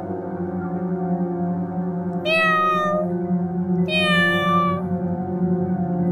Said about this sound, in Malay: Saya terdengar lagi kucing tu. Kali ni saya terbangun. Dan kali ni dengar bunyi kucing. Tapi slow je. Dia senyaring Semalam. Tapi masih kuatlah bunyi kucing tu.